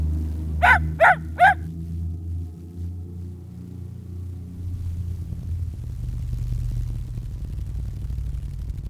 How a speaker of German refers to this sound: Ein Hund bellt.